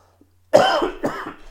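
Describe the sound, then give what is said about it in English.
A person coughs three times in quick succession, the first bout the loudest, each a harsh burst following a brief silence. “pardon for the cough.”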